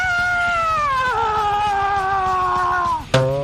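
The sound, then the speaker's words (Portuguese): A long, piercing high scream holds for about three seconds, its pitch sagging slightly, before a sudden loud burst of heavy band noise cuts in, like the opening of a thrash metal song. “Aquele grito que começa o...”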